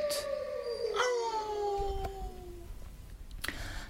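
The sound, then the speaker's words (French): A wolf pack howling, several long, gliding voices overlapping in drawn-out wavering tones that slowly fall in pitch, steady in volume, with no talking. “le chant des meutes”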